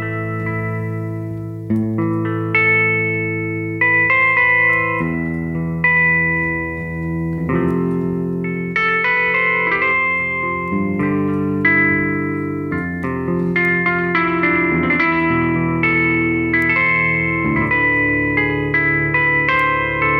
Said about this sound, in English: some kind of guitar because there are a lot of different instruments. I believe there are thousands, thousands different instruments or synthesizer, synthesizer.